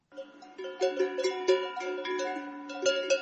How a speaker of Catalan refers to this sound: Aquest és el soroll que fan les esquelles, la campana que es col·loca al coll de les vaques per saber on són en cada moment i evitar que s'escapi.